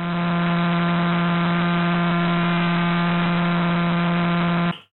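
The signal of millisecond pulsar PSR J0437-4715, rotating 174 times per second, rendered as sound: a steady, loud, low buzzing drone rich in harmonics, holding one pitch for nearly five seconds before stopping abruptly. No one speaks.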